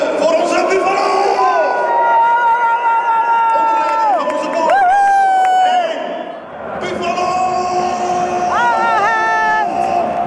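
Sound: football stadium crowd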